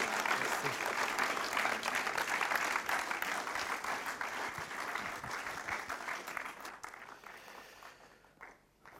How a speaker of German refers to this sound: Und lass doch Ihnen zum Schluss noch einen ganz herzlichen Applaus geben.